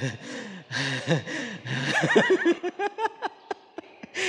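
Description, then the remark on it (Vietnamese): A voice acts out heavy, ragged panting, a mother on the phone pretending to be out of breath, with a string of sharp gasps and breathy pants growing quicker and more clipped toward the end. “nó không cái điện thoại bên đó cái bên nay giả bộ thở dốc”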